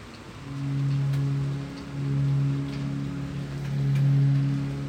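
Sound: heavy rain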